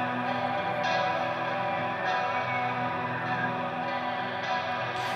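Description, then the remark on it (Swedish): Dense, distorted heavy metal music plays at a steady, fairly loud level, a thick wall of guitar with no voices over it, as the song is being faded out. “Jag tror jag kör lite utfejdning på det här.”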